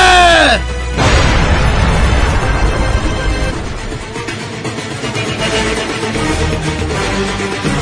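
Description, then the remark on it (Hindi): A loud explosion erupts after a brief harmonic sweep as an enemy bunker, the third, is blown up, followed by several seconds of sustained rumbling, crackling debris and chaotic battle noise. “इसको जल्दी उड़ाओ जनाब वरना वो हमारे बंकर में बम डाल देगा ठीक है जनाब वंदे मातरम भारत माता की जय ये ले तेरा तीसरा बंकर भी गया”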